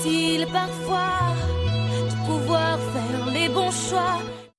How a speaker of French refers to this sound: Euh, là, ce que vous avez entendu, c'est le générique du film 12, un film que j'adore, que j'aurais aimé défendre, mais ce n'est pas de ce film dont on va parler.